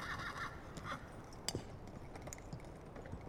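Faint hooves clip-clop unevenly as a horse pulls jeweller Louis Dimschutz's cart into an alley in Whitechapel at one in the morning on 30 September 1888, with a soft rattle of wheels and a sharper knock partway through, with no voices.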